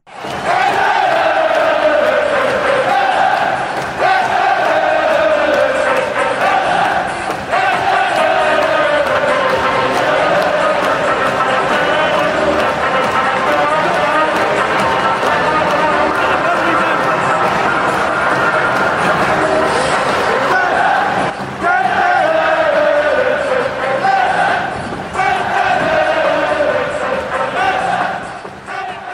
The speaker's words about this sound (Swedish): Den där ramsan känner man igen från flera olika platser. Den är ju knappast unik för Middlesbrough. De har den dock som eh, någon form av inmarschlåt. Men det är ganska mycket att kalla den inmarschlåt. Eh, QPR brukar köra den när de gör mål.